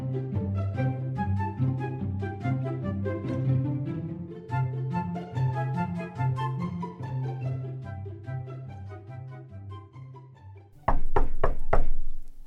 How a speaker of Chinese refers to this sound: 哎，就在这个时候，传来了敲门声。原来是提姆的好朋友马可飞老船长。